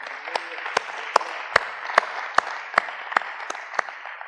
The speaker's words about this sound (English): And if you believe that, let's give the Lord a hand clap of praise this morning.